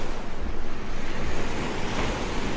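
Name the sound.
calm sea waves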